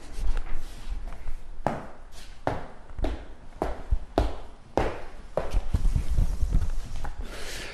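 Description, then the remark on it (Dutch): Footsteps walking from the hall through a house divided into apartments, a steady series of hard, sharp heel strikes on a firm floor, roughly two per second, with faint shuffling and a low background rumble. “Lopen eventjes vanaf de hal kunnen we niet door naar de volgende deur, want die is afgesloten voor de appartementbewoners, hè?”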